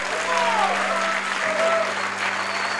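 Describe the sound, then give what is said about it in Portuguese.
A crowd at the Hangout claps steadily and loudly for Jesus and for the volunteers, a dense wash of applause throughout, with a few faint cheers or voices rising over it. “Será que vocês podem bater uma salva de palmas muito forte para Jesus, pelos nossos voluntários?”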